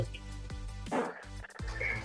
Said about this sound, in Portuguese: Imagina a pessoa ouvindo podcast no busão, tá ligado? Do nada começa um cachorro e mano, tem um cachorro aqui, velho.